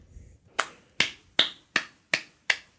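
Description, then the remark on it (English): Six crisp hand claps at a steady, even pace, each a sharp bright crack that fades quickly, with no one talking over them. “He's just sitting there clapping.”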